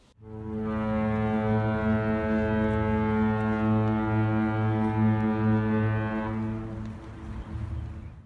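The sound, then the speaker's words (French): A ship's horn sounds one long, deep, sustained blast as the boat leaves port, loud and steady for about six seconds before fading with a slight tail. No voices are heard. “Ouais, en fait, c'est si le bateau quitte le port, euh, c'est autre chose.”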